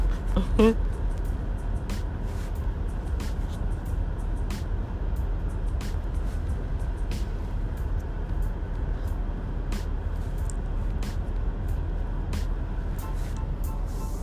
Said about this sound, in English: It's so bouncy, y'all. Why the U-Haul trucks are so bouncy? Bouncy, bouncy, bouncy.